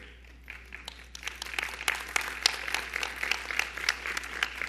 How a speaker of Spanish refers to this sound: Si ese aplauso es para el Señor, está muy lánguido.